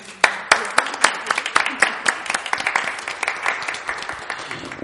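An audience applauds, a dense run of sharp handclaps that starts abruptly, holds steady and loud for several seconds, then thins slightly toward the end. No one speaks over it.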